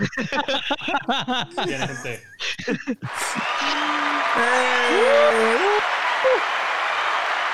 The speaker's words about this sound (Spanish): No a Evo, no a Evo, no a Fanfarria. Ponme, ponme, ponme los aplausos.